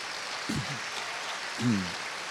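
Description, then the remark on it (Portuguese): An audience claps for Jesus steadily in a dense, continuous wash of applause, with a couple of brief voices calling out over it. “Isso mesmo, palmas para Jesus.”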